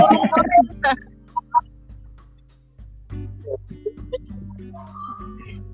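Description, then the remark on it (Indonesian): A pet bird at home calls with a burst of harsh, clucking squawks, then a few short chirps and softer scattered calls over a low steady hum. “Burung di rumah guys.”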